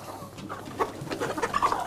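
Hens clucking, a series of short, bright clucks and soft chatter coming in quick irregular bursts, with no one talking.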